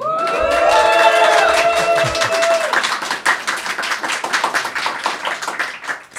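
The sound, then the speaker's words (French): A live audience at the bar La Forge in Nantes, France, cheers with raised voices and whoops at first, then breaks into steady, dense clapping that continues loudly to the end. “Eh bien non, effectivement, comme vous l'avez entendu, nous sommes en public et dans au bar La Forge à Nantes, et un public qui est venu par centaines de milliers.”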